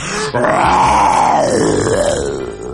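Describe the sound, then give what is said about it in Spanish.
A human voice, playing the bear Balú in a Spanish-language story about Mowgli, imitates a bear's roar with one long, loud, throaty growl that rises and then sinks in pitch, with no other sounds. “Oye, como aún se rugir como un oso, verás.”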